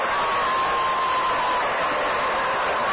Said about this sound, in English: Stan Musial being announced to the crowd and gets an ovation. he's quite a fella.